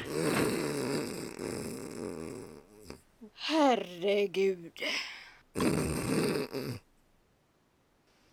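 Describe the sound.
Loud, rough snoring with a harsh, rattling drone like a drill, running in long bursts, broken by a brief exclaimed voice in between.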